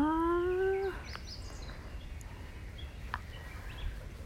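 A crow flying past lets out one drawn-out, fairly loud caw, then the call stops, leaving steady outdoor background noise with a couple of faint, brief chirps.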